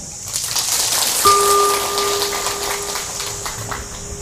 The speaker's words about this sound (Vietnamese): thì hãy cam kết à, trở thành đệ tử phật thì cho một tràng vỗ tay thật lớn nào